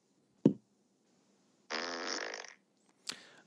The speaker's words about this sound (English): I'll give it a solid seven because I think there could be some variations on the fart noise that could improve it.